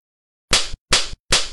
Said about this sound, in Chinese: 冷笑一声，其他人还来不及反应，岳雨琪脸上就落下一耳光。